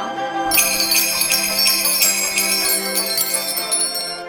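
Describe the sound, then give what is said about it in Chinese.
A small bell shaken by a dog jingles continuously with bright, high metallic tinkling that keeps ringing in an uneven shaking rhythm for several seconds, with no voices present. “狗不明白其中的道理，以为铃铛是主人给它的奖励，便一天到晚的把铃铛晃得叮当响。”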